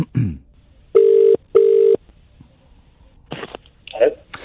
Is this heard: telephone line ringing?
yes